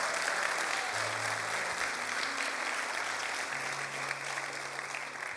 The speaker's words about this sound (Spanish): Vamos a darle un aplauso si lo crees.